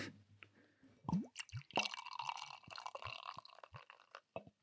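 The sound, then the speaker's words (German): Sipping and gulping of beer, with wet slurps, a few swallows and small liquid plops over a few seconds, no talking. “Dann würde ich mal sagen, Prost. Ja, auf diese erste Podcast-Folge und unser erstes Bier, was wir in diesem Rahmen dessen probieren.”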